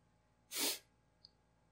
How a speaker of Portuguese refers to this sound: Calma. Tá, tá, não veio. Eu ia espirrar e não, não veio mais.